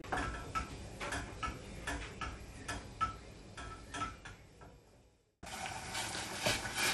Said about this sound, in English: Right, okay, so it's uh, bubbling away and um, the, uh, the mixture is reduced now.